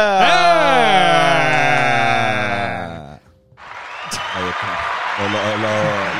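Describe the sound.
A loud, wavering bleat-like cry fills the first half, then after a short pause a dense burst of applause breaks out, steady clapping mixed with whooping voices until the end.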